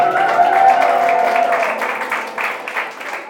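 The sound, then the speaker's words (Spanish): A church audience at Bastago Church applauds steadily for a few seconds, a dense wash of many hands clapping at once with a faint tonal hum underneath early on, then gradually thinning out. “Y qué viene aplauso.”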